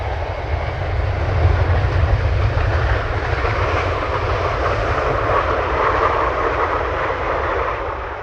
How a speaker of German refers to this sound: Aber Flugzeug bleibt Flugzeug. Nach wie vor Turbine.